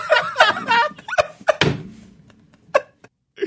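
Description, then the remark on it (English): A voice imitates the mating noises of two dinosaurs: a run of squealing, yelping cries and sharp grunts in quick bursts, fading to a few scattered short yelps. “and then it's the sound of two dinosaurs fucking.”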